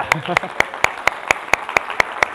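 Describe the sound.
Applause in a steady, even rhythm: about ten sharp, crisp claps spaced evenly apart, with a short burst of voice at the very start, as a group applauds a participant who answered a question.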